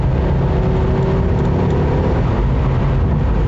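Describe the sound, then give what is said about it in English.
A car engine hums steadily, a continuous low rumble with a faint rising tone as the car accelerates on a highway to pass a slower car in the right lane. The sound is loud and constant, with no voices present. “Guy, you're on the highway now, you need to go faster. So I'm gonna pass you in the right lane.”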